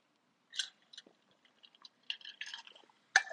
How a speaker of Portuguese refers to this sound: Um gole d'água porque já estou a reta seca.